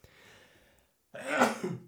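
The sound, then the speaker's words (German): A single sharp, loud sneeze bursts out after a brief quiet pause, sudden and explosive before trailing off quickly. “Gesundheit.”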